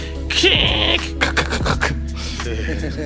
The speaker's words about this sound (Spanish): Hace rato no escuchaba un sonido de lectura de disquete, ¿no? Como que los sonidos lo pueden trasladar a uno a, a unas épocas muy distantes, weón.